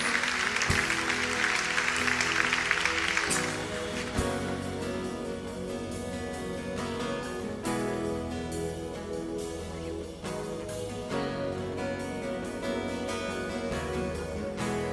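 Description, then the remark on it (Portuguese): An audience applauds the Lord with a dense, steady wash of clapping for about three seconds, then it gives way to sustained instrumental music that carries on to the end. “Vamos aplaudir o Senhor, amém?”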